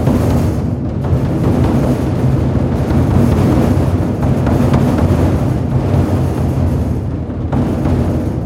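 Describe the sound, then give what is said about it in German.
A large drum, struck hard on its membrane with a big mallet by a percussionist, rumbles steadily, imitating thunder: a dense, loud, low roar with rattling texture from 14 small sacks bouncing on the membrane, swelling slightly over several seconds without pause. “Mit einem großen Schlägel haut der Schlagzeuger kräftig auf die Membran und bringt dadurch die 14 Säckchen zum Hüpfen, was den Donnerklang imitiert.”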